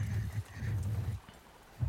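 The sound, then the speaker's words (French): Donkeys bray in loud, rasping bursts, with a short pause before another starts, while hooves clop faintly underneath. “Et du coup, je devais de toute façon, avant, avant que la guerre éclate, lui confier ses ânes.”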